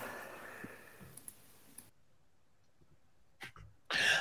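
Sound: cough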